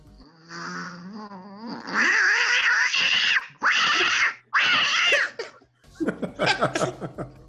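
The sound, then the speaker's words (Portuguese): A person imitates a cat, rising into a few loud, drawn-out meowing yowls, followed by choppy bursts of laughter. “só sai mandando sua imitação, por favor. O gato?”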